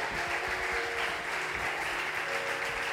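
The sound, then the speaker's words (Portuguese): An audience applauds God in the name of Jesus, a dense, steady wash of clapping that holds at an even loudness for the whole stretch with no voices standing out. “Aplauda Ele em nome de Jesus.”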